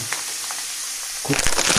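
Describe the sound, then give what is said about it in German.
Pepper being ground in a pepper mill onto a dish while cooking: a short burst of rapid, gritty crunching clicks that starts abruptly over a steady background hiss and grows louder toward the end. “Pfeffer aus der Pfeffermühle.”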